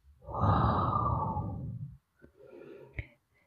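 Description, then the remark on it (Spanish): A long, forceful breathy exhale through pursed lips during a breathing exercise, like blowing out a candle, lasting nearly two seconds, followed by a softer breath and a small click, with no talking. “El sonido que vamos a realizar durante la respiración es como el que se produce cuando se sopla una vela.”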